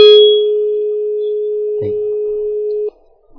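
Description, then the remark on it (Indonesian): A phone call to a call-in line goes dead: a steady, single-pitched telephone tone hums for about three seconds, broken once by a brief clunk midway, then cuts off abruptly into near silence. “terputus Anda bisa menghubungi kembali”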